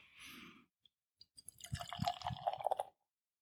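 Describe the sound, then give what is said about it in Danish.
Beer glugs and splashes into a glass, poured fairly aggressively, a short burst of bubbly, gurgling pouring lasting about a second, preceded by a brief hiss and a couple of small clicks. “Ja, men det, det lød altså godt, da du hældte op.”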